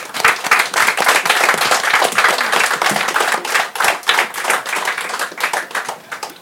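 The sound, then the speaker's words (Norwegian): An audience applauds steadily for about six seconds at the end of a panel discussion at Arendalsuka, a dense, loud wash of many hands clapping with bright, crackling texture, no voices standing out, easing slightly toward the end. “Stor applaus, folkens.”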